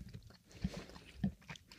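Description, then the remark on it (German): Quiet chewing on gummy bears, soft and gummy, with two small wet smacks about half a second apart amid low mouth noises; no talking. “Was du noch kaust?”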